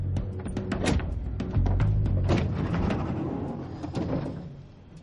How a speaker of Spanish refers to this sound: Se detiene. Jack baja y abre la puerta de Ian.